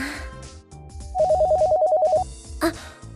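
A telephone rings with a rapid electronic trill, one burst lasting about a second, loud, with soft background music underneath and a brief click afterward.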